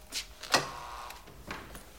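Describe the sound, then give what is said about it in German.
A door buzzer is pressed: a sharp click, then a brief faint electric hum, with a few soft mechanical knocks before and after. No one speaks. “Lien geht zur Tür und drückt auf den Summer.”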